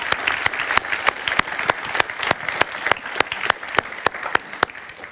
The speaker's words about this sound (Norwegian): And give a big clap to Jesus Christ. La oss klappe for Jesus Kristus.